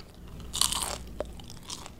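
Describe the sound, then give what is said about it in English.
A crisp crunch as someone bites into a french fry with a new, improved coating, a bright crackling burst followed by a few softer chewing crackles, with no talking. “Listen to that crunch.”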